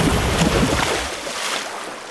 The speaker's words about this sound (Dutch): Geef me die roeispaan. We roeien terug.